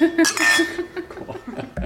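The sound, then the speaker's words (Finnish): Empty glasses clink together in a toast, a bright ringing cluster of chimes near the start, followed by soft murmuring voices and a light chuckle. “otetaan sitten tyhjin lasin.”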